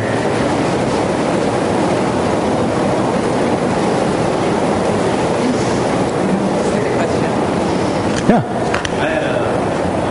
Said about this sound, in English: And now we'll have a moment of heavy rain.